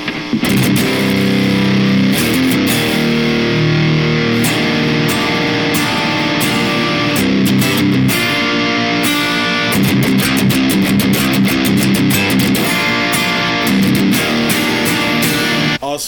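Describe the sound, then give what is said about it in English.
Loud, gritty distorted electric guitar played through an amp cabinet blending two speakers, a DV77 and a Swamp Thing, as a reference tone, with thick sustained chords and rhythmic bursts of strumming running steadily for the whole stretch, no voices. “So, this is the blend of that cabinet. Here is our reference.”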